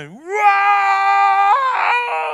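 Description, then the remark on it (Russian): A person's voice imitates a baby crying at night for its mother's breast milk: one loud, drawn-out wail that rises at the start, holds steady, then jumps higher and breaks into a ragged sob near the end. “Когда ночью ребенок захочет молоко матери, грудь матери, ночью,”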